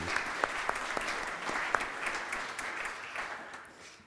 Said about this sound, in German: Danke meine lieben Teens und auch die, die ausgeholfen haben. Gebt doch ihnen mal einen Applaus für das coole Theater, das sie gemacht